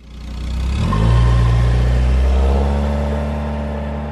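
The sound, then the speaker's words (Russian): A muscle car engine revs up into a deep, throaty roar, loud, holding a steady rumbling growl for a few seconds before easing slightly, with no voices. “Придется ли им жертвовать скоростью и ревом?”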